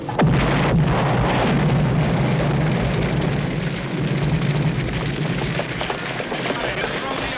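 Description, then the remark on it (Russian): A car that has just driven past explodes in a film scene: a sudden loud blast at the start, then a dense, steady roar of rumbling, crackling noise that stays loud for several seconds, with faint voices mixed in. “Машина, что только что проехала, взорвалась.”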